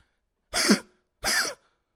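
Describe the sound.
A person imitates their dog's harsh, honking tracheal cough, which the dog gets with changes of season or sudden temperature changes, in two loud, rasping bursts separated by a short pause, with no talking.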